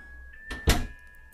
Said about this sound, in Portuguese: Então, eu tomei coragem, respirei fundo e abri a porta.